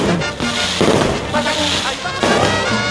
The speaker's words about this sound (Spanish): Bueno, ya se llega la Navidad, ya se llega, se llega, se llega, se llega. Se está sintiendo en algunos lugares, cohetes por aquí, cohetes por allá, tristeza por allá también, pero bien.